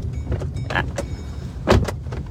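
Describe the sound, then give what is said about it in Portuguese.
A car door that had been left open is shut with a solid thump near the end, preceded by a few lighter clicks and rattles over a low idling engine hum, during a drive through city streets. “Porta está aberta? Vamos fechar então.”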